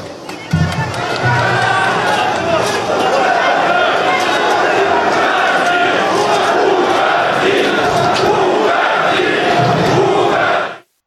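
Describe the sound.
A large crowd of protesters at a Minsk factory, where an anti-government strike had begun or was planned, shouts and chants continuously after a speech, a dense roar of many voices with sharper yells rising out of it, loud and steady for about ten seconds before cutting off.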